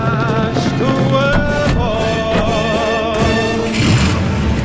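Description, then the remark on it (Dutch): Several heavy thuds and crashes land at irregular intervals, doors being kicked in by soldiers taking strategic places on the night the Portuguese revolution started, after 24 April, loud over a continuous droning, tonal music bed. “Deuren werden ingestampt, strategische plekken werden ingenomen.”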